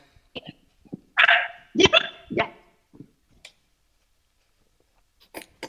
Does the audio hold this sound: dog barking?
yes